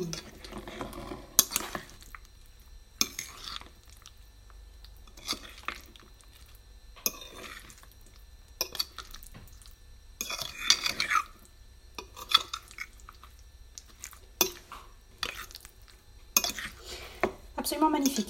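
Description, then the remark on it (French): A utensil scrapes and clinks against a bowl in irregular bursts, mixing a soft, moist fruit preparation with the base, with brief pauses between strokes and no talking. “Et alors après, moi, je, je mélange avec la base. Et vous entendez, t'entends ce bruit là Je dis vous, tu.”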